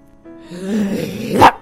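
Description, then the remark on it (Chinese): A dog growls low and steadily, then lets out a single loud, sharp bark at the end. No one speaks. “没想到，一只狗从树洞里突然跳了起来，把狐狸咬住了。”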